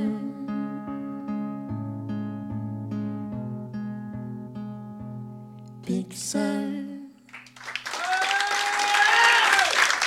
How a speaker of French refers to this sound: Avec les lumières, là, on a l'impression d'être euh, dans un énorme stade. Et vous faites autant de bruit qu'un stade, donc merci pour ça. Presque autant de bruit.